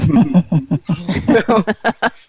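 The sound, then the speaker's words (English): A human voice imitates a horse's low, worried nicker: a quick run of soft, fluttering voiced pulses, fairly loud, that could almost pass for a chuckle. “he does this little nicker which i'm not sure if you've never been around horses my co-hosts know it you know that little low worried like”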